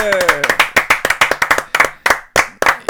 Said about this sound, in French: il n'a pas eu droit de, il a pas eu droit aux applaudissements à Naiko Skate. des petits applaudissements quand même.